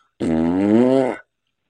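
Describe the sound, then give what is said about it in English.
A single loud, buzzy fart noise lasting about a second, steady and droning before cutting off, apparently blown with the mouth as an imitation, with no talking around it. “That's a fart, not smart ass.”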